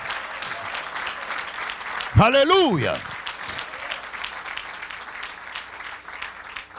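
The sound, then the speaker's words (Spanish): An audience claps steadily and densely in praise to the Lord for the whole stretch, with one voice ringing out in a brief loud exclamation over the applause partway through. “ese aplauso de alabanza al Señor.”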